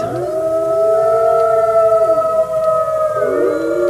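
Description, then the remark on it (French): Several wolves howl together in a loud, sustained chorus, their long overlapping tones gliding up and down and filling the whole stretch without a break. “Alors je vous rassure tout de suite, Renault, ce n'est pas la bande son des forêts d'Île-de-France”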